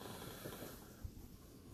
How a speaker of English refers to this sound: Maybe hear some grunts and snores and snarfling sounds from my girl Momi, who's to my right on the couch.